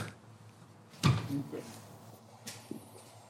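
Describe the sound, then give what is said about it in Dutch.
The door to a basement scenery and props storeroom is opened with a sharp clunk of the latch, followed by a brief scraping rattle and a softer knock a moment later, over a quiet hum. “De deur gaat open.”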